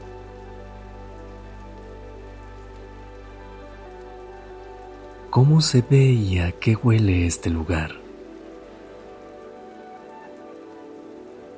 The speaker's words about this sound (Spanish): Enfócate en el sonido de la lluvia, el sonido de las gotas que caen sobre las hojas. que caen sobre el suelo.